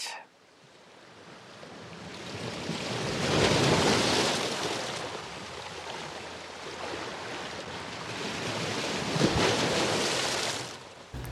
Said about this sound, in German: Und wie das so ist, in so einem Hafen ist einfach jede Menge los. Da gibt es ganz viele Geräusche. Im Hintergrund hört ihr Hafenromantik.